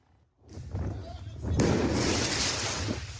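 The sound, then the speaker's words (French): Firework mortar shots, fired at firefighters during an intervention in the 20th arrondissement of Paris on the night of 14 July, go off in a couple of sharp booming bursts, followed by a sustained crackling hiss, with agitated voices audible underneath the noise. “Des actes de vandalisme, mais aussi de violence, comme ici dans le 20e arrondissement, où des pompiers en pleine intervention sont visés par des tirs de mortier.”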